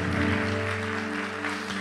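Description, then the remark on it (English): In a church, a crowd claps steadily in appreciation for a couple of seconds, a dense, sustained wash of applause at even loudness with a faint low hum running underneath. “So give them one more round of applause as a uh, appreciation.”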